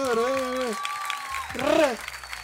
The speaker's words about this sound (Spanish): Muy bien. un fuerte aplauso para los picante